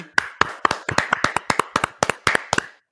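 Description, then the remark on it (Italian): A short burst of hand clapping in tribute to actor John Noble, a steady run of sharp claps at a quick even pace, some slightly doubled as if from a couple of people, with no talking; the clapping woke a dog. “Ho applaudito anch'io, abbiamo fatto svegliare il cane, molto ecco.”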